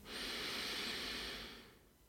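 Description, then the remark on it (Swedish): A slow, deep inhalation during a counting breathing meditation, a steady airy rush lasting over a second before tapering off, with no talking. “Andas in.”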